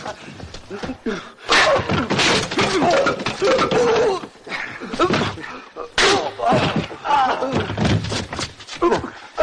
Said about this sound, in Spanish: El hombre que vio al estudiante primero intenta entrar en la otra habitación y le cierran la puerta golpeándole la cara con ella.